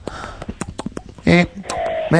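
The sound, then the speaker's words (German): A single voice imitates a fox reciting poetry in fox language: a quick run of clicks and short snuffling bursts, then drawn-out, whining, yelping tones. It's gibberish animal talk, not real words. “ein Fuchs rezitiert Uhu, äh, Rilke. Und zwar in der Fuchssprache.”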